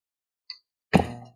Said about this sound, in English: I'm drinking a bit of coffee. I should have probably should have put a little bit of caffeine in there.